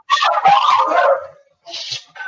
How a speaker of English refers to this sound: We got to we got to quiet all the barking dogs. I love it. It's, oh full, it's the full moon energy. Get that dog out of here. Make him go swimming or have fun.